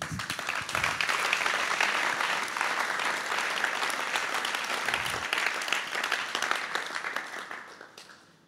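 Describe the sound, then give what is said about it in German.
A crowd applauds steadily, a dense patter of many hands clapping at once, holding a loud even level before thinning out and fading near the end. “Ein Applaus.”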